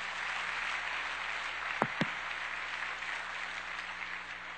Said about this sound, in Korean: 우리 초등부 우리 아주 좋은 워십 댄스로 수고해 주셨는데 박수 한번 다시 한번 해주시 기 바랍니다.